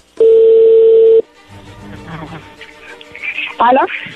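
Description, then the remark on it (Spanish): A loud, steady telephone dial tone hums for about a second, then cuts off into muffled line noise, faint clicks and a brief snatch of talking over the phone line. “pues ahí se está marcando, ahí le va a llamar”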